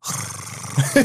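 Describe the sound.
A voice imitates a money counting machine with a brief, rough whirring rumble, held steady for about a second with a couple of louder bursts near the end.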